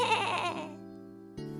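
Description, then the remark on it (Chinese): A faint sheep bleat coming from beside the corner of a wall, a wavering, nasal cry that starts breathy and settles into a steady tone, followed by the start of a second bleat, with no talking. “墙角边传来的微弱的咩咩叫声回答他：咩咩。”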